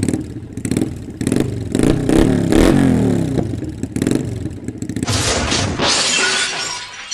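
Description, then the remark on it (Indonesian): A motorcycle engine revs loudly, then a crash erupts with glass shattering and debris clattering, ending in a bright, noisy spray of breaking fragments. “dan plang gue tabrak yang gak separah SFX tadi sih”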